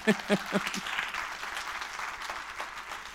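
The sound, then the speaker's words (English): An audience at a stage talk breaks into applause, a few sharp claps at first quickly swelling into a dense, steady patter of many hands clapping at moderate volume, with no voices over it. “Please, somebody clap.”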